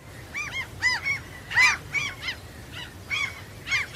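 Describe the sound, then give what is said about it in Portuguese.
Seagulls calling in a rapid series of harsh, nasal cries, about eight or nine squawks in quick succession, fairly loud, with no voices present. “Manda as gaivotas, buscar ela, ó.”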